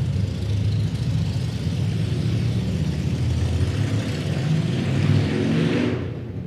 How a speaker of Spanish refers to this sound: pasar ahorita las motos